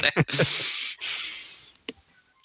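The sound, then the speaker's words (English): Cats fight each other on a table, letting out long, harsh hisses in two sustained bursts, with a short throaty growl at the start and a couple of sharp spits near the end. “fighting each other on the table.”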